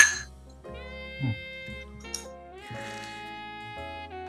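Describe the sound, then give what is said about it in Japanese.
Glasses clink together in a quick toast over the first drink of the night, a couple of bright, brief chimes heard over a steady backdrop of sustained musical tones. “じゃあ乾杯ね。乾杯。乾杯。”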